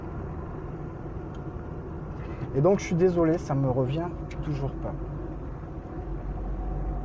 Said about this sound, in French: Par contre, je suis en train d'étuver dans ma voiture. Je voulais pas mettre trop de bruit, mais je vais essayer de baisser un petit peu les vitres. Et puis on verra ce que ça donnera.